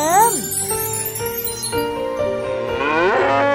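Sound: calf mooing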